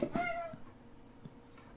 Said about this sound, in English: Um, you dealing with cats again?